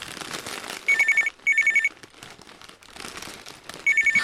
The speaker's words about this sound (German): Scheiße. Das ist die Kanzlerin. Lass klingeln, geh nicht ran, geh nicht ran, geh nicht ran.